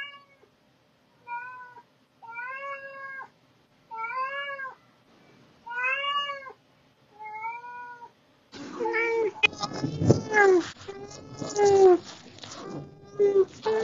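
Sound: cat meowing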